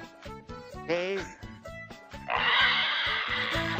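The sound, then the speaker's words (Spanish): A voice imitates a pig, grunting and letting out a brief rising squeal, then a long, loud, raspy snort-like burst, with rhythmic music playing underneath. “¡Haz como puerco!”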